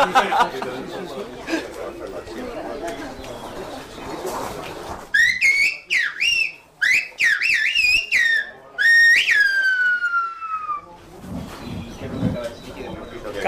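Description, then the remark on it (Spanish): A piercing whistled language: sequences of sliding, warbling high-pitched whistles that rise and fall like speech melodies, ending in a long descending glide, with muffled talking before and after. “la palabra silbada, bueno, pues eso es la clave de todo. La clave de un lenguaje único en el mundo”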